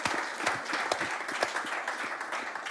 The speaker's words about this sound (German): Er hat den größten Applaus verdient. Yes, come on, an den Locations. Komm in deine Hände, mach ihn groß, er hat's verdient.